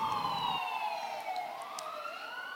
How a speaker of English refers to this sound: Let these ambulances go by here.